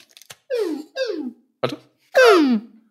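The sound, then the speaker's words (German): A voice imitates Police Academy siren and laser effects: three quick downward-sweeping zaps, a sharp percussive burst, then a louder, longer descending whine, with no talking. “So Sirene und Laser.”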